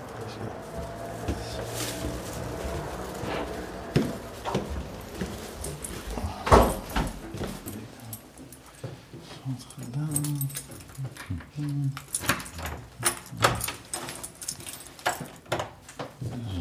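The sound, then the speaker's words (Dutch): Footsteps climbing a flight of stairs indoors: a string of irregular thuds and knocks, moderately loud, with faint rustling and creaks between steps and no clear talking. “Dan lopen we weer naar boven.”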